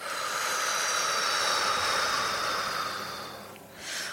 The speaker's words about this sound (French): voilà, on va inspirer par le nez, on va ouvrir en grand les bras. On bloque la respiration, on ouvre les mains, on imagine que le manteau tombe et on souffle, on relâche les bras.